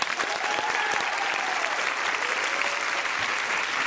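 Steady applause from an audience, a dense wash of many hands clapping continuously at an even loudness for the whole stretch, with no voices standing out.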